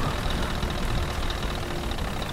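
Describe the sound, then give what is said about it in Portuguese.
A steady, dense rumble of heavy war tank and armored truck engines idling and churning, loud and continuous throughout with no pauses and no voices. “Grandes tanques de guerra Carretas, caminhões blindados e fortemente armados, as tropas impiedosas do exército da ordem fechavam um grande cerco.”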